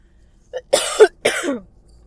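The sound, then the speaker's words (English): A short wet throat sound followed by two harsh coughs in quick succession from a person with an itchy, scratchy throat, loud and raspy, with nothing else around them. “I am coughing today.”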